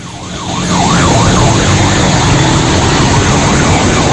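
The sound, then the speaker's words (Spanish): The siren of a 911-system ambulance wails in a steady up-and-down sweep, loud, over a constant rumble of engine and road noise with no voices, heard while following behind it along with a National Police unit coming from the La Herradura area. “Bien, en este momento vamos dándole seguimiento eh, a una ambulancia del sistema 911 y una unidad de la Policía Nacional, en los cuales vienen desde la zona de la Herradura”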